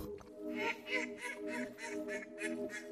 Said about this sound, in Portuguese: É conhecido e, desde logo, identificável pela forma, pela plumagem, pelos comportamentos e, claro está, pelas vocalizações. O pato. Neste caso, o pato real, a espécie de patos mais vulgar.